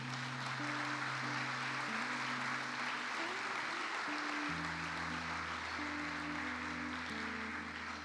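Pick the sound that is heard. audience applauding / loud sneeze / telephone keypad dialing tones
audience applauding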